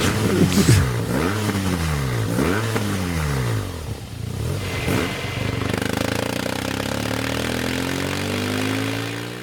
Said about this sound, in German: ich finde auch einen Boxer, ähm, ich meine, das, das ist ja bei jedem Motor so, aber ich finde, einen Boxer hört man auch echt von weitem schon durch diesen 360 Grad ja. Zünd, Zündreihenfolge